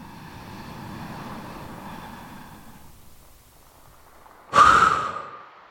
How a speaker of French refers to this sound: Inspirez profondément et soufflez fortement pour vous dynamiser.